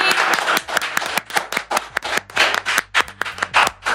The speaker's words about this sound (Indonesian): Sekali lagi beri tepuk tangan buat narasumber kita hari ini.